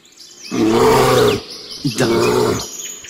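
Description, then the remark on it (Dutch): Two loud, deep bursts of an agitated bear growling threateningly, each lasting about a second, rough-edged, with faint bird chirps in the quiet background. “Want dit is al een vrij dreigend geluid. betekent dat hij toch al een beetje geagiteerd is.”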